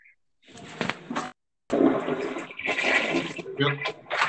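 A steady splashing stream of urine, a person urinating into toilet water, broken by a short pause before it resumes, noisy and hissing throughout.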